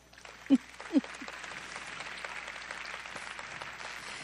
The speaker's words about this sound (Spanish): Dele un aplauso.